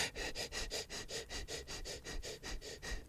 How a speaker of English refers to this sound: So, typically, when you're stressed, you're going to be breathing really short and shallow. It's going to sound a little like this.